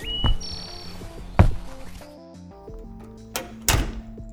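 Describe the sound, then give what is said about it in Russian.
A door swings shut by itself with a few heavy thuds and knocks, spaced unevenly over a few seconds, with a faint high whine and low background hum between impacts. No one speaks. “Дверь закрывается. Сама собой!”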